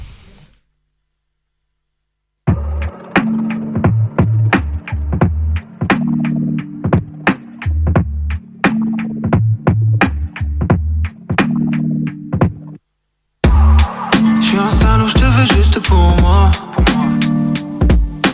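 A French rap song starts after a brief silence: a loud, steady beat with deep repeating bass notes and sharp percussive hits, building into a fuller, denser section near the end.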